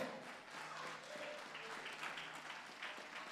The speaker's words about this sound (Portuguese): Vai ficando de pé e aplaude ao Senhor.